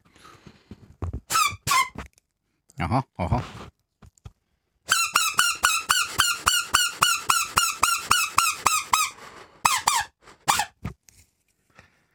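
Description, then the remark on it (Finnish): A shrill, squeaky call blown on a plastic strip found in the forest, given in a few short bursts and then a long rapid series of a dozen or so harsh repeated squeals, with brief spoken murmurs between. “Tämä on tämmöinen muovin, Muovi. mu, muovinauha, joka on metsästä, mm-hmm.”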